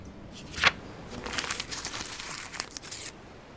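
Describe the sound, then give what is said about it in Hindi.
Paper rustles and tears as a letter is opened: a sharp rip, then a few seconds of continuous crinkling and crackling, fairly quiet, with no voices. “तो चलिए इस चिट्ठी को खोलते हैं सुनते हैं इनकी कहानी”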